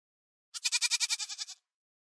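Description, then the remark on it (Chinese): A single sheep lets out one wavering bleat, about a second long, pulsing rapidly in a nasal, vibrato-like quaver with bright harmonics, then stops; no voices or other sounds. “精灵又消失了，再度出现在门口，带了一只羊来。”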